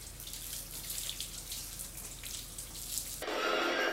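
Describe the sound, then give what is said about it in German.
Water runs steadily from a tap with a soft, splashy hiss. Near the end the flow suddenly grows fuller and louder. No one speaks. “Das Wasser ist gut?”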